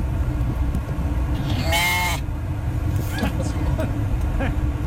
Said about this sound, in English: it's my wife driving home with a couple of sheep in her truck, stuck in traffic.